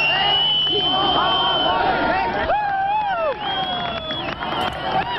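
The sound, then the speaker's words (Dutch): A large crowd in West Berlin cheers and shouts continuously at night, welcoming East Berliners crossing the Berlin Wall on 9 November 1989, with many overlapping voices, rising whoops and loud calls blending into a dense, steady roar of jubilant noise. “In West-Berlijn werden de oostelijke stadgenoten op champagne en gejuich onthaald.”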